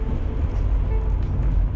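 Steady, low rumbling drone of a car's interior while driving, with constant engine and road noise filling the whole moment and no voices.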